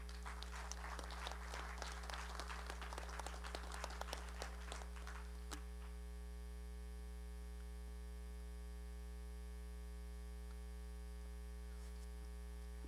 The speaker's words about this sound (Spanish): ¿Por qué no le das un fuerte aplauso a Dios?